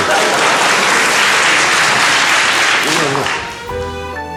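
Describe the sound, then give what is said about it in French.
Loud, dense audience applause fills the first three seconds, then fades as a man's voice begins speaking over the tail of the clapping. “Et puis pour rien arranger, j'ai horreur qu'on m'applaudisse.”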